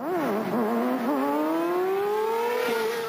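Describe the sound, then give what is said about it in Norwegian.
A loud motorcycle with an illegal 105-decibel noise emission, driven through Paris at night, revs up steadily, its pitch climbing with a couple of brief dips as it accelerates, continuous with no talking. “Og en på olagliga 105 decibel.”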